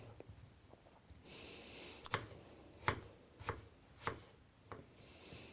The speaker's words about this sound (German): Und ja, ich äh, würfel dir jetzt so grob die, äh, die ja, Apfelviertel, und ich schneide sie einmal der Länge nach durch, dass ich halt Achtel habe und dann äh, schneide ich da so kleine, kleine Würfel runter.